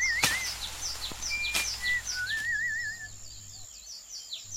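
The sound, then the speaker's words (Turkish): Pigeons arriving at bait by a net trap, heard as a flurry of high chirps and warbling calls with a couple of sharp flutter-like bursts, steady over a faint background hum. “Güvercinler geliyor.”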